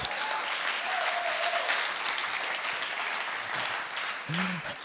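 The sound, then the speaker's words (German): Sustained audience applause for the worship band, a dense, steady patter of many hands clapping at an even loudness throughout, with a few faint vocal sounds rising briefly near the end. “Einen großen Applaus für euch.”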